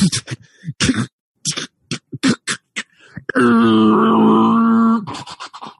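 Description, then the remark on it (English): A voice mimics ice plates groaning: a few clipped, percussive vocal bursts, then a long, loud, sustained creaking groan with wavering pitch that cuts off abruptly. “Uh, with every second you guys wait, you hear the, you can feel the shifting of the plates go.”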